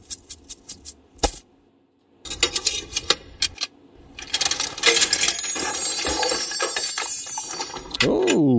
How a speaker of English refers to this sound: So, if you will, go ahead and grab that bag of coins there and we'll figure out All what's right.